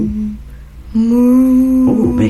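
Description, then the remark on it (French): A person imitates a cow's moo with a long, steady, low-pitched hum that rises out of a quiet start and holds loudly for over a second. “Qu'est-ce que c'est ça Mais bien sûr, c'est un vache.”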